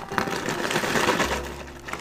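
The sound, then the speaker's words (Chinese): Someone eating a cookie: a dense run of crackly, crinkling crunches lasting a couple of seconds, with a low steady hum underneath toward the end and no talking. “甚至你听到一些噼里咔啦的声音哦，比如说这个，好，这个是我要吃饼干的声音。”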